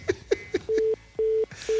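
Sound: telephone call dialing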